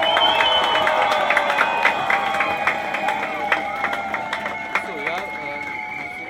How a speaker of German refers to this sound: Aber wir sind trotzdem hier. Ein großer Applaus, dass wir lauter sind als die da drüben.